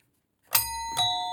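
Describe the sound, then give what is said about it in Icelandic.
A two-note doorbell chime rings out, a bright ding followed by a lower dong about half a second later, each tone sustaining with a shimmering, harmonic-rich ring. No voices. “Ah, ding dong, það er alltaf viðægandi.”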